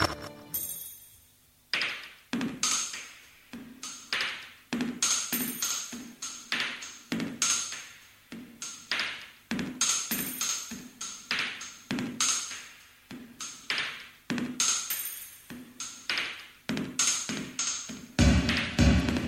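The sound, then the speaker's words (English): A synth-pop song intro, the A-side of a single, with steady, punchy electronic percussion hits and a ringing, pinging synth tone repeating in a tight rhythm, loud, with no singing yet. “Of course, we have chosen a project which never released more than two songs.”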